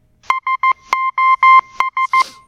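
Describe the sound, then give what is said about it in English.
A loud, clear electronic tone beeps out the SOS pattern in Morse code: three quick short beeps, three longer ones, then three short again, with a few sharp clicks mixed in. “SOS was first adopted as a Morse code distress signal by the German government on April 1st, 1905.”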